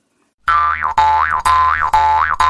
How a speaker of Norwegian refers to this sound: Det må da gå an å bruke munnharsp i stedet.